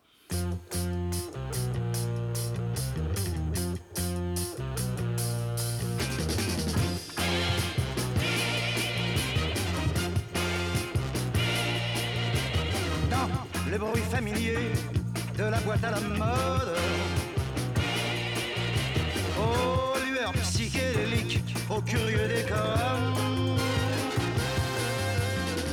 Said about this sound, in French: qui est une chanson résolument moderne et euh, moderne dans son orchestration, on va dire.